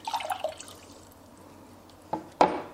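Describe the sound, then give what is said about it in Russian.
A short burst of liquid splashing into a glass standing on a weighing scale, 140 grams being poured, then near-silence, followed by two sharp knocks close together near the end. No one speaks. “Дальше наливаем в эту тару жидкость”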